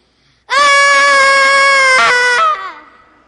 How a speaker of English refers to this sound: Okay, what are you yelling about?